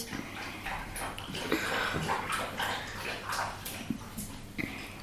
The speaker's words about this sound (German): das ist der Hund.